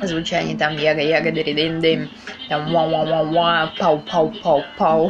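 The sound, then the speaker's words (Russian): A voice vocally imitates reggae sound effects after a brief spoken word: rhythmic scatted syllables, then a quick run of four "wa" sounds and four punchy "pow" blasts, loud. “Вообще меня очень прикалывают вот эти вот звуки в регги, которые ну, какая-то имитация голосом э, разных”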